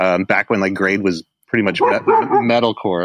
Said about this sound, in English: Sorry, that's my dog.